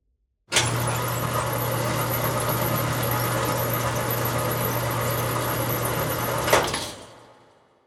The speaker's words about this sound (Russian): Сразу за мной дверь закрывается.